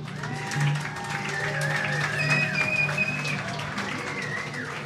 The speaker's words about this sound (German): Applaus für …, bitte!